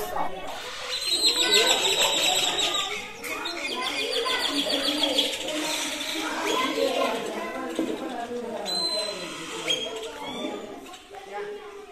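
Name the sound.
birds calling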